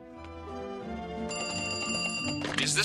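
A short musical radio jingle with sustained tones that grows brighter and louder, a ringing telephone bell woven through it, ending in a bright shimmering burst. No one speaks.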